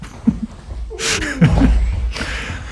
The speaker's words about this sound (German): jetzt ist das Mikrofon runtergefallen. Jetzt ist das Mikrofon runtergefallen.